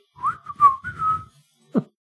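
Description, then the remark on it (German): A woman whistles a short, wavering run of notes, gliding between pitches for about a second, then pauses before one brief, rough final sound. “Und sie macht dabei auch noch so Geräusche so. Hm, hm, hm, Fühlt man, dass sie pfeift.”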